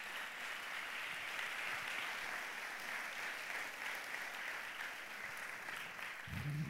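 A large audience at Faith Promise church applauds its campus pastors as they come to the stage, a dense, steady wash of clapping that holds at an even loudness for several seconds, with a brief low rumble of voices rising near the end.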